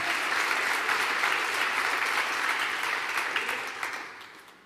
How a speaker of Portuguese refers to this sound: Aplauda Jesus para isso.